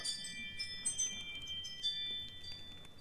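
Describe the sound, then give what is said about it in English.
A dinner bell rings with sustained, shimmering high tones that linger across the few seconds, fairly faint and steady, with no one speaking over it. “That's a dinner bell.”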